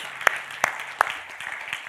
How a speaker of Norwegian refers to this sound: Jeg vet vi har klappa noen ganger allerede, men skal vi spandere på en til?